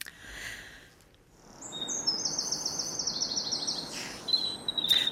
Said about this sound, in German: So hört sich sich's zurzeit frühmorgens an, die mhm. Balzgesänge der Vögel im Frühling. Das Konzert ist, das ist auch für Forschende interessant.